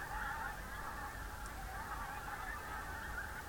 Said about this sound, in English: Hundreds and hundreds of geese. They must be getting ready to make their spring migration. It's extraordinary noise. They don't usually sound at night at all.